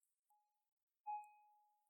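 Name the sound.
bell ringing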